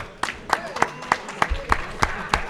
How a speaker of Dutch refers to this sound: Er ploeg 4 was eh, eh, de verlichte kapoten. Een applaus. Braaf, proficiat.